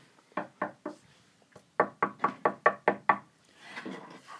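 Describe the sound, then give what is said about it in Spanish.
Sharp knocking on a door: a quick set of four raps, a short pause, then a louder run of about seven even knocks, followed by a brief muffled rustle. “Después de un rato, alguien llamó a la puerta y gritó.”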